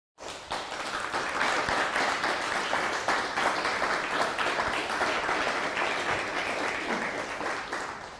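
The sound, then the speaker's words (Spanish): A crowd claps steadily for about eight seconds, a dense, even wash of many hands that starts suddenly and fades only slightly at the end, with no voices standing out. “Bueno, pues qué bueno tenerlo hoy con nosotros nuevamente. Un fuerte aplauso.”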